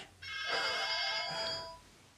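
telephone ringing

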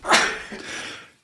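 sneeze

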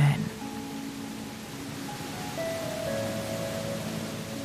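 rushing waterfall

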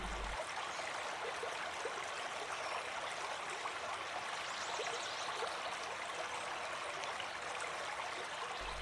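flowing river water

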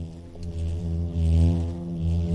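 bumblebee buzzing

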